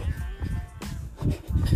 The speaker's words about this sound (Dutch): En luister naar de schaap in mijn mei hier.